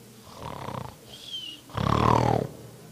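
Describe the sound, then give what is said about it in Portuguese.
A voice imitates loud snoring: a softer rasping inhale, a brief high whistle, then a long, harsh, rumbling snore, prominent. “Você ronca que é uma beleza. Você dorme tão bem que ronca.”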